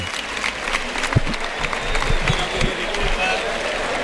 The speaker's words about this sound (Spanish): Morante sale a saludar y hace un gesto. A ver, ahí está. Abre los brazos, recibe la ovación del público, es unánime. Salvo algunos espectadores, pocos que pitan, pero la, gran mayoría una fuerte ovación.